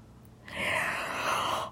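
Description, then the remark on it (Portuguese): A narrator's voice acts out a single long, breathy yawn, fairly loud, drawn out for over a second before cutting off, with no other sounds around it. “falou a, noite à noite bocejando.”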